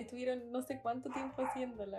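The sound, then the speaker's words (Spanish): The speaker's own dog barks in the background in several short bursts while the speaker keeps talking in Spanish over it, the barks partly buried beneath the steady speech. “Omitan que tengo un perro que ladra.”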